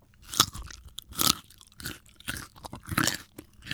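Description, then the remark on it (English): Crisp crunching as someone bites into and chews a raw vegetable, with several loud snapping crunches in an uneven rhythm and no talking. “What's orange, crunchy, healthy, and delicious? Not just the carrot anymore.”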